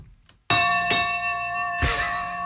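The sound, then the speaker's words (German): A ship's bell rings out loudly, struck three times in quick succession, its bright metallic tone sustaining and ringing on between strikes. “Die Schiffsglocke.”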